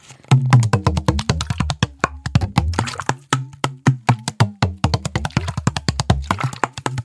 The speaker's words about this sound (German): Also ich nehme die Wasserflasche.